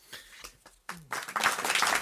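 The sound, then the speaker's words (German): An audience bursts into applause for a guest speaker after a brief pause, the clapping swelling into a dense, steady roar of many hands. A few scattered claps and a short voiced sound come first. “Nochmal einen Applaus für Sie.”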